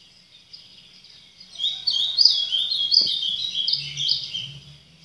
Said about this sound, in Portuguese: Quando eu ouço os sons dos pássaros, eu não fico a analisar se não deveria ser mais grave ou mais agudo, se existe ritmo ou se não existe ritmo.